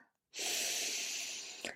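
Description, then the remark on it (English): A single long, deep inhaling breath into the belly during a diaphragm breathing exercise, drawn in steadily for over a second, breathy, ending with a brief catch at the top of the breath. “Make sure you're breathing into the whole of the body, the belly, the upper chest, armpits, everything.”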